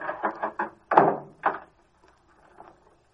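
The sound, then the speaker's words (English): A car trunk is shut and locked: a few quick clunks, then a heavy slam and a second solid thunk, trailing into faint metallic clicks, with no talking. “Well, let's lock this back and get out of here.”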